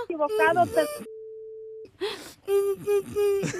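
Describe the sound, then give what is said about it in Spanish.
A steady, mid-pitched telephone tone sounds for nearly a second after the other party hangs up the call, with excited voices talking just before and after it. “Ya me colgó.”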